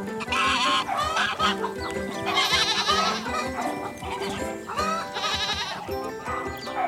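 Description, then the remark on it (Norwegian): A busy farmyard chorus of goats bleating and geese honking in the large gardens behind the white houses of the street Dyrebakken, overlapping calls loud throughout with no pauses and no talking. “Bak hvert av de hvite husene er det store hager med masse dyr. Både lamaer, geiter, gjess og hunden Laura.”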